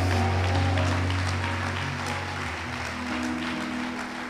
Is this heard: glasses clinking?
no